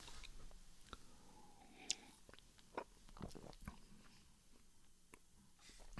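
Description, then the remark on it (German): Wet mouth sounds as beer is swished into the cheeks and around the mouth during a beer tasting, with scattered smacks and clicks and a gulping swallow, quiet and intimate with no talking. “Also bevor du den runterschluckst, lass den mal so richtig in die Backen und dann hinten alles und dann schlucken runter.”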